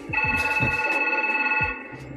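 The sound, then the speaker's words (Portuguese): A telephone rings with a steady electronic tone that holds for nearly two seconds, fairly loud, with a few low thumps underneath before it cuts off. “Deu o telefone Alô?”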